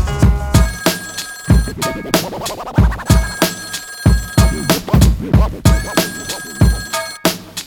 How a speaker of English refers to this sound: Unlock the front door and I'm finally home. But before I can breathe, there goes the damn telephone.